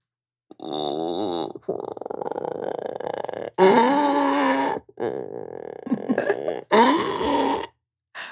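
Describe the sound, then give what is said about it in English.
A person imitates a howler monkey with a series of loud, deep, guttural roaring calls, five long drawn-out bursts in quick succession with brief breaks between them, forceful. “Hit us with it. With the howler monkey?”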